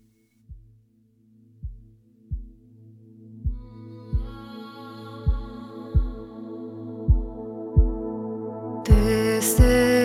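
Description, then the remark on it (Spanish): A song intro opens with slow, steady heartbeat-like thumps under a soft sustained pad that gradually swells and brightens, then the full music bursts in near the end. No voices. “tengo un tema musical que nos va a poner en sintonía con lo que vamos a hablar en esta tarde.”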